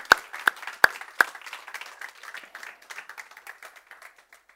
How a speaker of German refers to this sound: Ich würde sagen, wir begrüßen die auch noch mit einem herzlichen Applaus.